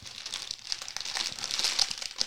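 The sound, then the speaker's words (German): Crinkling plastic of an inflated snack bag from the Philippines being handled, a steady run of sharp, irregular crackles lasting a couple of seconds, with no voices. “Hier habe ich, glaube ich, nochmal was aus den Philippinen so aufgepumpt, wie die Tüte ist”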